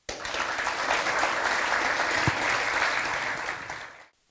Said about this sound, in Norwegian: En varm applaus til dem.